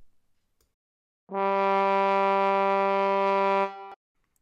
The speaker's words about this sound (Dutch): Het signaal voor de rust of een rustiger tempo klinkt zo.